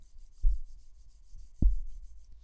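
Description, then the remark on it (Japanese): Faint, steady rubbing of a hand along a smooth, well-polished wooden stick, no longer bumpy, interrupted by two dull, low thumps as the wood bumps against something. No one speaks. “結構いい感じにね、磨いてるんで、もうボコボコなんでないんですよ。もうツルツルなんで、見てください、これ。”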